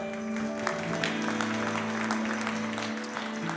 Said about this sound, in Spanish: Dale un fuerte aplauso, iglesia.